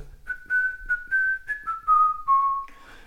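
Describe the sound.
Someone whistles a short pop melody, a run of clear sustained notes stepping gradually downward over about three seconds, moderately loud with no talking.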